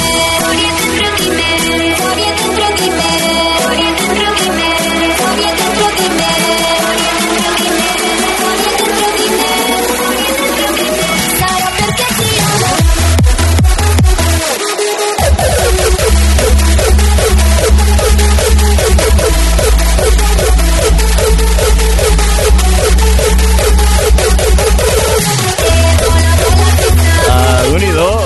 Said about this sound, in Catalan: Aquest sí. pedazo de remix